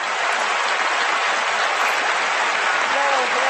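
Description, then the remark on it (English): A large audience at a US presidential debate between Donald Trump and Hillary Clinton applauds and cheers steadily as the candidates are introduced, a dense, continuous wash of clapping with no pauses. “Don't do the thing humans do. Yeah. don't cheer.”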